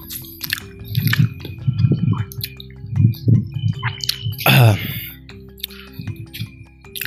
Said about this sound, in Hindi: ये टॉफी खा लूँ यार मैं एक बार दिक्कत हो रही है फिर बोलने में ना मैं इसको क्रॉप करूँ क्या हाँ टॉफी खा लो यार आप लोग भी एक लेट्स खा रहा हूँ मैं चॉकलेट वाली